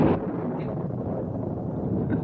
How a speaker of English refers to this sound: This looks like it's going to be one of the snappiest electrical storms we've ever had.